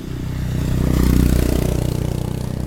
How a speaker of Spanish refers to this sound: Espera que pase la moto. Espera que pase la moto.